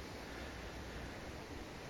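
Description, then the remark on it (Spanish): A steady, hissing wash of sea surf rolls on without pause, a broad rushing noise like waves breaking along the beach at Hendaye, with no voices. “Bueno, pues aquí estamos sentados en la playa y mire qué mar como le he dicho antes, esas dos rocas, ¿no?”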